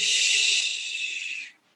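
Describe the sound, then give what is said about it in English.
A single long, deep inhalation during a walking exercise, drawn in steadily through the mouth or nose for about a second and a half, airy, then cutting off abruptly. No speech. “Simultaneously, you're pushing off that back left foot like you're sprinting on the blocks. Breathing in.”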